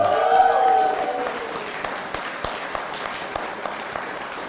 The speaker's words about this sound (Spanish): denle un fuerte aplauso que nos está viendo.